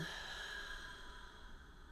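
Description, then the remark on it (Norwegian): A soft, steady breath out through the mouth lasts about two seconds, a gentle airy whoosh with no talking over it. “Så pust dypt inn gjennom nesen og ut gjennom munnen.”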